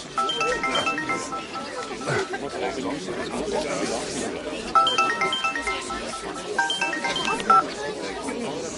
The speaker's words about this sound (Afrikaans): Ek dink sy foon lui.